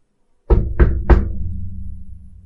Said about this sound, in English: Wait, is he like knocking or snapping for me to leave? He knocks on the side of the of the door, and there is a moment, and the door kind of hisses open.